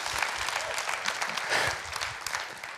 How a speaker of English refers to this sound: And so you better start clapping because I need you to be in a celebratory mood this morning. Somebody better see how God is working in through the life of this church.